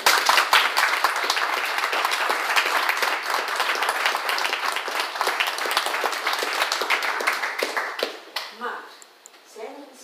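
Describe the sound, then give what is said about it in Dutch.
A crowd applauds the event's organizers steadily with dense, overlapping hand claps for about eight seconds, then the clapping thins out and fades as a few voices come through at the end. “Wil ik hen ook allemaal applaus geven.”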